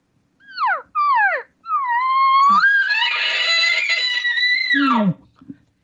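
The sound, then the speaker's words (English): Two short, falling cow-elk mews imitated by one caller in quick succession, then straight into a long, rising, whistling bull elk bugle from the same voice that holds high before dropping off into low grunts, loud, with no talking. “You notice how he'll give two, three cow sounds and straight into the bugle.”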